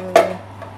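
A small saucepan is lifted to start making pepatelli, with a single sharp metallic clank that rings briefly, followed by a faint softer knock a moment later, with no talking.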